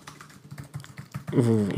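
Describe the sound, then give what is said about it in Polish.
Quick, uneven clatter of keys on a computer keyboard, a dense run of crisp clicks, before a person's voice cuts in right at the end. “ja tylko powiem, jaki jest update klawiaturowy.”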